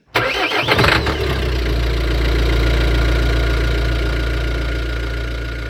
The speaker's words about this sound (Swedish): Ja, ljudet av en dieselmotor som startas, det kommer ju kanske vara ett minne blott här i framtiden.